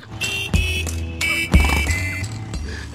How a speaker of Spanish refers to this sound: mezcló un villancico con el ruido de la moto. Eh, y no era eléctrica.